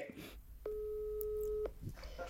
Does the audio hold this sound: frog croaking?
no